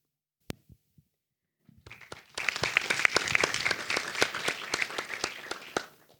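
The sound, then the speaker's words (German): A group bursts into applause after a sharp click and a few soft thumps, the dense clapping swelling quickly, holding steady for several seconds, then cutting off abruptly. “Genau, zum Feiern war es jetzt schön, dass ihr mal klatscht.”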